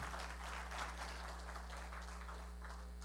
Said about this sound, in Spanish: Dale un aplauso fuerte a Dios, por favor.